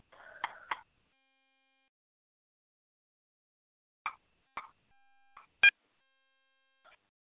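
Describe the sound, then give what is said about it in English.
Several short electronic alert tones and clicks from a small tablet going off, spaced irregularly with quiet gaps, one brighter beep standing out near the end; no one speaks. “You probably can hear my phone, my little tablet going off.”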